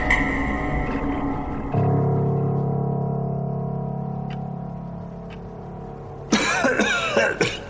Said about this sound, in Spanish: Te levantas tosiendo sin freno, con tu mano llevada a la garganta.